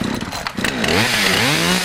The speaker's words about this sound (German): zwölf Stück Kettensägen daheim, von der zarten Akkusäge. Hört sich eigentlich an wie Ventilator irgendwie, wenn du mich fragst. Bis zum fetten Teil.